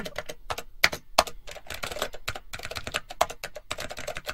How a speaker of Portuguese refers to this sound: Porra, só digitando, irmão, não falando.